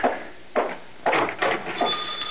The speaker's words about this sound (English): Now, as the police urgently ring the bell of the front door.